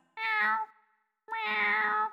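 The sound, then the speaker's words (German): A person imitates a cat with two drawn-out, tonal meows separated by a short pause, fairly loud, with no other sounds. “Ich kann, glaube ich, ganz gut eine Katze”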